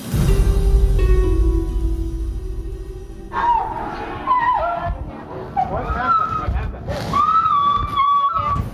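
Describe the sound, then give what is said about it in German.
After a few seconds of low, steady rumble, figure skater Nancy Kerrigan cries out in pain after being attacked with a baton in Detroit on 6 January 1994, with repeated high, wavering screams and sobbing wails, loud, in uneven bursts. “Was wir hier hören, sind die Schreie von Nancy Kerrigan.”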